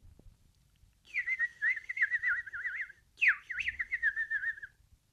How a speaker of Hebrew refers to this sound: היו למלך שלוש ציפורים, כנרי,